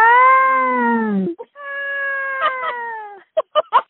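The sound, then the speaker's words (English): A peacock screams loudly: two long, drawn-out wailing cries that sag in pitch, followed by a few short, sharp honking calls in quick succession. “And peacocks will scream at any time of day and they sound like a weird baby.”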